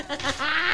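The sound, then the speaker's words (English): A Doritos chip being crunched in one brief, crisp bite, a dry crackling rasp lasting under a second with no talking over it. “a small crunch.”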